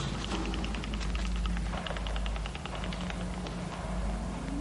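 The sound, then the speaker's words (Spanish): Teeth chattering from the cold in a library: a rapid, irregular run of small, sharp clicks that keeps going for several seconds over a steady low hum, with no one speaking. “Son mis dientes, maestro.”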